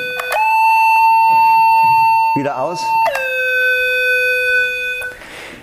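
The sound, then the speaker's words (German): A steady electronic tone from a light detector (Lichtmelder), responding to a flashlight switched on over its light-dependent resistor, sounds twice, a few seconds each, with bright harmonics and a pitch that steps up at onset; a short spoken phrase comes in the gap between them. “Das ist ein sogenannter Lichtmelder oder Lichtmesser.”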